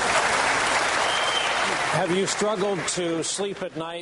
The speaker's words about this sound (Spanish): el debate anterior se le preguntó al gobernador Rick Perry acerca de su aplicación entusiasta de la pena de muerte en Texas, el público comenzó a aplaudirlo y a ovacionarlo.